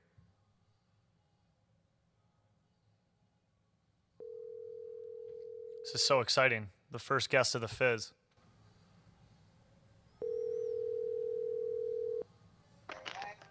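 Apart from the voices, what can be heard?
telephone call ringing tone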